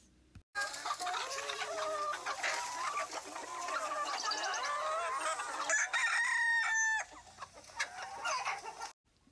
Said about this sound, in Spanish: Yo, María, trabajaba la tierra y apenas tenía unas gallinas.